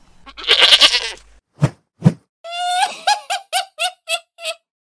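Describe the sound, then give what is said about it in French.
A goat bleats loudly, first a long raspy cry, then two dull knocks, then a quick run of about six wavering, stuttering bleats. “Ils acceptèrent, et Capu sortit à la recherche des sorcières et des trolls, armé seulement de sa cuillère de bois et chevauchant sa chèvre.”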